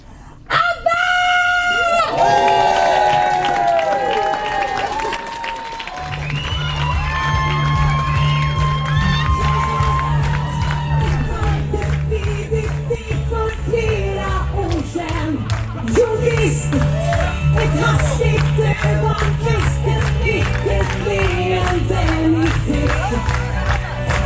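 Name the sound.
audience applause and cheering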